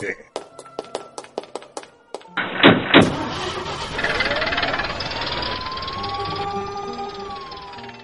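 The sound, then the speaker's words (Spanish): A quick run of sharp clicks gives way to the loud engine of a police patrol car waiting outside, with a faint wavering siren gliding over it, steady for several seconds. “La patrulla espera allá afuera.”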